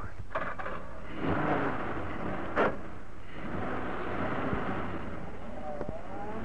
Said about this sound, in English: the spare wheel was bolted on, the tools were replaced in the boot, and the two men climbed into the car. I hope that ignition key of yours works, Bart. Of course it works. I tried it out last night. Ah, good for you. And here we go.